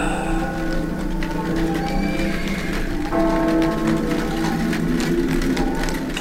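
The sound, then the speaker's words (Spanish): Horses harnessed to a carriage paw and stamp their hooves restlessly amid a steady wash of rain-like noise, with faint snorts and tonal sounds woven through, continuous for the whole stretch. “Los caballos piafan ya enganchados y la carroza guarda.”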